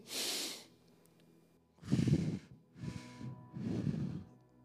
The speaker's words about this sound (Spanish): Ejercicios de respiración. Y la ansiedad se tranquiliza. Así nos enseñaron.